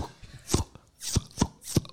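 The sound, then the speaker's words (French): A voice imitates a tennis ball being hit, making four sharp, percussive mouth pops at an uneven pace, made with the lower lip placed under the upper teeth. They are fairly quiet, with no talking. “Alors, par ah exemple, pour faire la balle de tennis.”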